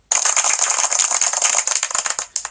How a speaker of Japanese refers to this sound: 自分で拍手のボタンとか押してるのちょっと虚しくなってきましたけど